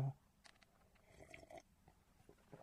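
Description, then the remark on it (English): Slurping of hot tea: a few short, wet sucking sips with small pauses between them, quiet and intimate, with no voices. “Tea slurping sounds so much more appetising than water.”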